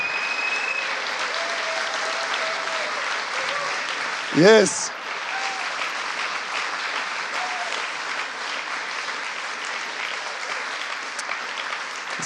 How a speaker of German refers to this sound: lasst uns doch mal dem Herrn Jesus den größten Applaus geben, oder? Nochmal richtig laut werden für Jesus.